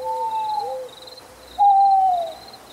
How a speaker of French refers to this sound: J'aime bien entendre, euh, j'entends la chouette les nuits d'hiver.